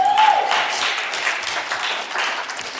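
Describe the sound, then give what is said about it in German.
A church audience applauds a reader coming forward to read a Bible text from Ephesians chapter 3, a dense wash of many hands clapping at an even level throughout, with a brief high whistle-like tone near the start. “Gebt ihr ruhig mal einen Applaus.”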